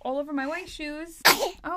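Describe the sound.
A single sharp sneeze bursts out in the middle of someone talking, loud and breathy, with speech continuing right after it.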